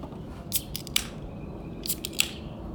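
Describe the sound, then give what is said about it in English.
Two beer cans cracked open one after the other, each a quick cluster of sharp, bright metallic snaps with a brief fizzy hiss, over a low steady background hum. “All right, let's crack them.”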